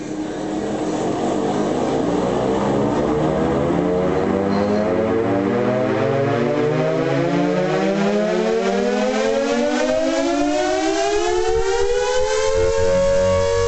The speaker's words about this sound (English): Sonically, air raid sirens aren't as grumbly as the Brahm, it's true, but they do get close while they're spinning up.